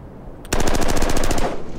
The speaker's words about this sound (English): Ooh. And that's not a quick typewriter. That's someone shooting guns.